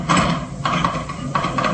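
A door handle is jiggled and rattled against a locked latch, giving three bursts of metallic clattering with brief pauses between them, fairly loud and with no voices over it.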